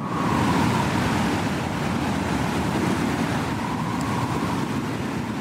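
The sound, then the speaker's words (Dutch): Steady, loud wind roars without a break, with a faint high whistling tone rising and fading over the rushing noise. No voices are heard. “Ja, het geluid van de fluitende wind eh, om je hoofd.”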